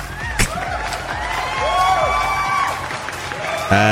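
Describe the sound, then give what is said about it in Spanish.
A burst of applause sound effect: steady crowd clapping mixed with cheering and sliding whistles, loud and continuous for several seconds, ending with a sharp thump. “¿Dónde están los aplausos? Aquí están.”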